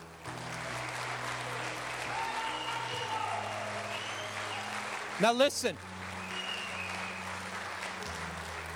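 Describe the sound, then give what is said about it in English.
An audience applauding during a church service for whoever has become a born-again believer, a steady dense wash of clapping that holds for several seconds, with a man's voice speaking briefly over it and a short burst of whistling or cheering partway through. “I want everybody in this place to, to give a great big hallelujah and applaud for whoever that may be. Can we applaud?”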